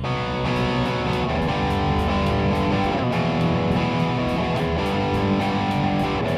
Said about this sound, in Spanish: amplificadores de guitarra en modo clean. Amplificadores de guitarra en modo distort.